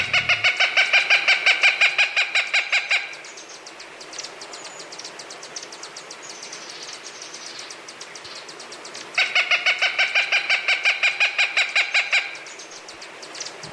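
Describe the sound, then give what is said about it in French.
A hawk (an épervier, found from southern Canada to northern Mexico in open forests and riverside groves) gives two loud bursts of rapid, evenly repeated piercing calls, separated by a stretch of fainter, scattered calls against quiet outdoor ambience. No one speaks. “Et comme à l'habitude, voici le chant et le cri de l'oiseau à l'honneur aujourd'hui.”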